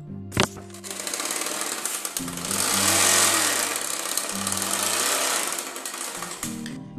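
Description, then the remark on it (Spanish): An old motorcycle engine sputters and revs, a rattling, chugging drone that grows louder for a few seconds and then keeps running steadily, with no voices, as a carpenter arrives on his old motorbike. “De repente llegó el carpintero en su vieja moto.”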